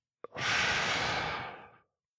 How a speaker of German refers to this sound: Deswegen zählen Sie in einer solchen Situation innerlich auf 10, ganz langsam, und atmen Sie bewusst tief ein und dann lange aus.